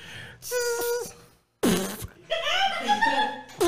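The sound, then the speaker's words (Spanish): Two imitated fart noises, buzzy and squeaky with wavering pitch: a short blast, a brief silence, then a longer sputtering one that trails off, with no talking. “Entonces, el sonido del pedo tiene mucho que ver con lo cerrado que tengas el ano.”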